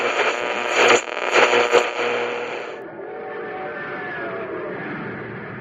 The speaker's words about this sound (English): That train's really traveling now because it's supercharged with super fuel.